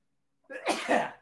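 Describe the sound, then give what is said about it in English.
A single sharp sneeze bursts out, a quick breathy build followed by an explosive, noisy release that trails off after about a second. “I had to sneeze out the crap that I'm getting from.”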